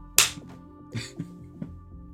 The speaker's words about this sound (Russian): Ну, когда, особенно когда Стэн, когда он пощечину бьет вот так вот, это и уворачивается.